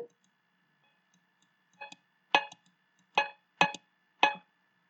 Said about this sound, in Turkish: Yani inek bu boyunlardaki işte birine sahipliği olduğu belli olsun diye benim ol, yani sahibi, kimin sahibi olduğu belli olsun diye takılan çanlardan müzik yapmak için kullanıldığı için bir cowbell yani inek çanı sesi var 808'de